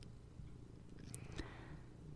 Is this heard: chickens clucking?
no